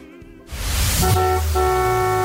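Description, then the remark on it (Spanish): A car horn honks loudly, two blasts in quick succession with the second held longer, sounding over a burst of rushing noise; the horn marks the 'Bocinazo en EXA-FM' segment on the radio station EXA-FM. “Bocinazo en EXA-FM”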